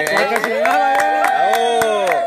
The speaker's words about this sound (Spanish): Aquí el público lo puede constatar porque efectivamente se le pagó un clamato a cada público para que estuviera aplaudiendo,